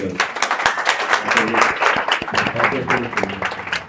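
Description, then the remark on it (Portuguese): An audience at Hotmart's headquarters in Madrid applauds steadily for about four seconds during the introduction of a talk given in Spanish, a dense patter of many hands clapping at once, with crowd voices mixed into the noise throughout. “Falei nós fumo, nós fomos, falei, mas deu certo e olha só, logo na introdução já fui aplaudida.”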